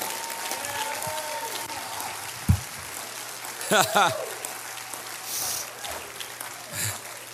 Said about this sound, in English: Oh, let's clap our hands. I want the winners to clap your hands right now.